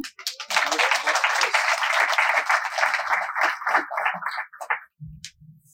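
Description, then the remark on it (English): A crowd bursts into sustained applause for guests being called up one by one, a dense wash of clapping that holds steady for several seconds before thinning out and fading, with a brief voice at the very end. “Put these two things together and make some noise.”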